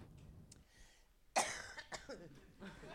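A loud cough bursts out suddenly, followed by a few rougher, smaller hacking coughs and throat noises over a second or so, with no one speaking.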